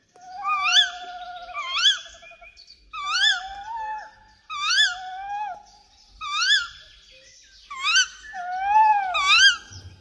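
A tawny owl in a forest gives a series of about eight wavering, wailing hoots, each rising and falling in pitch, repeated roughly every second with no one talking.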